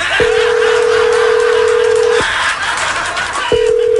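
A steady, mid-pitched telephone tone sounds for about two seconds, stops for a beat, then starts again, like a line ringing through a phone, over a constant hiss with no one speaking.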